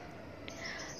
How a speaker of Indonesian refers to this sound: terus ada juga bunyi burung yang lagi berkicau ya